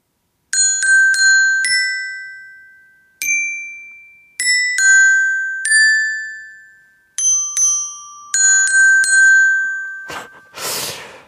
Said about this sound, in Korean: 정박에 딱딱 들어가야 되는데, 어, 정박이 아니라 좀 레이백을 하는 느낌이죠? 예. 흑인의 소울이 조금 들어가 있는 아주 청량한 실로폰 연주였습니다.